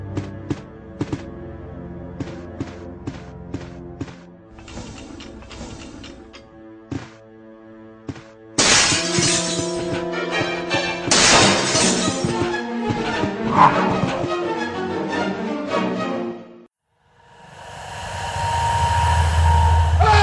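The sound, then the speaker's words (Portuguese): A sudden loud crash of a dog smashing through a glass window in a mansion corridor in the video game Resident Evil 1 bursts in after tense, sustained tonal music, followed by a harsh noisy rumble. No one speaks. “tem um, um momento ali que para mim é icônico do Resident Evil 1, que é aquele momento que você tá num corredor da mansão e o cachorro ele pula da janela.”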